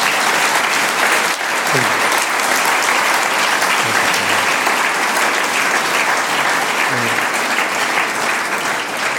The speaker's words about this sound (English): Um, and uh, for the moment, I would like to give you some applause for this, that you actually made it to Munich.